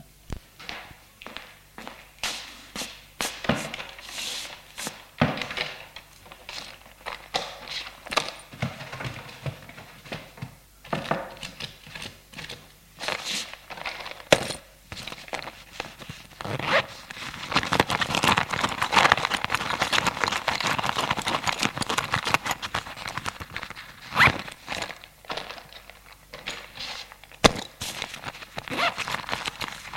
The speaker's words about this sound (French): Il est allé dans la chambre, fouillé dans l'armoire et ses sacs à main.